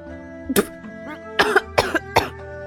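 Someone spits out a mouthful of tea in a sudden sputtering spit of liquid, then a run of three or four harsh, choking coughs in uneven bursts over a faint, steady tonal background.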